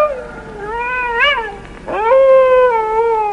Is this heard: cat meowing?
yes